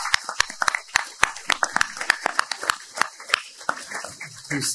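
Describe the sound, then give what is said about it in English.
An audience breaks into a round of applause for Pastor Hatch, a steady burst of many sharp, uneven claps that keeps going for several seconds with no one speaking. “Please give Pastor Hatch a huge round of applause.”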